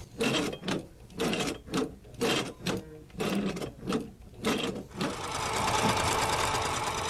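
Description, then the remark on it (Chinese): An original Singer Model One sewing machine, manufactured in 1851, runs with a loud, rhythmic clatter of about a dozen mechanical strokes, then settles into a steady, continuous whirring hum for the last couple of seconds. No one speaks. “So this is a, an example of a, a Singer Model Model One. It's actually one of the original machines, so it would have been manufactured in 1851.”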